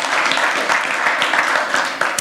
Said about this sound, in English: Can we give him a hand clap for that? Yeah, thank you.